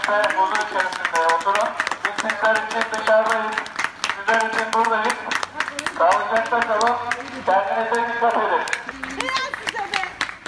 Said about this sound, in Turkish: Sakaryalılar sokağından geçen 112 acil sağlık ekiplerini alkışlayarak destekledi. Sağlıkçılar da karşılık verdi alkışlara.